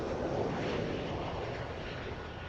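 A steady, loud airplane engine drone fills the whole stretch, a broad continuous roar like sitting in a cabin during a flight to Frankfurt in March 2018, with no voices.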